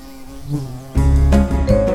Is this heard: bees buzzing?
yes